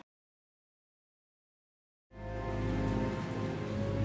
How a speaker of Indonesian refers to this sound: Musim dingin pun tiba, hujan turun tak henti-henti.